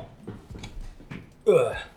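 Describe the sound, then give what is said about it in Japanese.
Soft murmured vocal sounds give way to a single loud, throaty burp near the end, low and rasping with a downward-sliding pitch, lasting about half a second. “ゲップ出ちゃったけど。”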